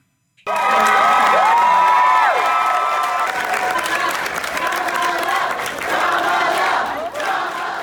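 A large crowd cheers and shouts loudly and continuously after a sudden start as Camilla Harris launched herself as presidential candidate for the Democrats in November, with rising whoops and yells standing out above the dense roar, which stays strong throughout.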